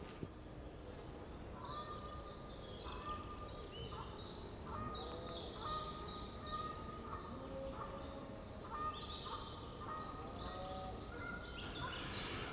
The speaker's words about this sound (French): Euh, ils viennent passer, euh, je ne sais pas combien de milliers de grues. Bon, vous êtes là dans le fond, vous avez les grues, qui, les voiliers qui vous survolent.